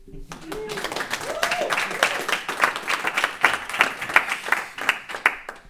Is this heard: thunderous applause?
yes